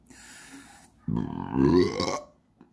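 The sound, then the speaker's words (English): A single long, loud burp, rumbling and rising in pitch for over a second before trailing off into quiet. “If I can get a good sound out of it, I'll try and really belt it out out there.”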